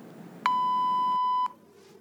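voicemail beep

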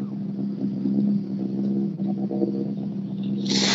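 rally car driving past

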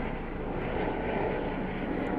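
helicopter flying overhead

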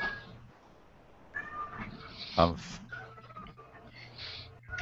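cat meowing

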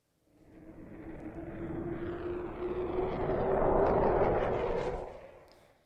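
airplane taking off

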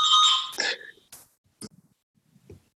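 doorbell ringing

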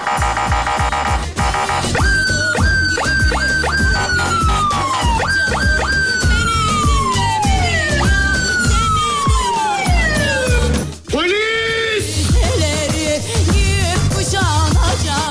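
police siren sound effect

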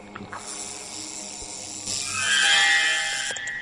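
fly buzzing

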